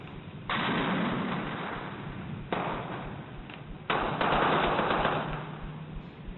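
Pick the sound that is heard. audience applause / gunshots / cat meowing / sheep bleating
gunshots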